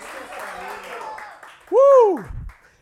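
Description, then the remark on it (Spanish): A crowd claps and cheers in a steady wash of applause on Resurrection Sunday, then a single loud voice rings out in a rising-and-falling shout before the noise fades away. “Dale un aplauso fuerte.”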